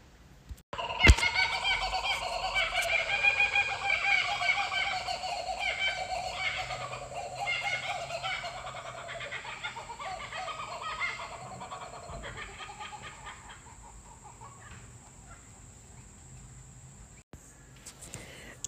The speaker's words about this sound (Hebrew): זאת הייתה קוקברה, ציפור אוסטרלית, שישבה פה בשקט על הענף עם חברתה, וחיכתה בסבלנות שאגמור לדבר איתכם. התחילה לצייץ, לשיר, לקרוא, לצחוק, אה, ממש כמו שסיימתי.